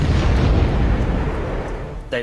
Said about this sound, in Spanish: En agosto de 1947, los rusos quieren comprobar cuántos ataques podría soportar el Graf Zeppelin antes de hundirse. Colocaron una serie de bombas dentro del naufragio, bombas de 2.000 kilos que detonaron en la cubierta de vuelo.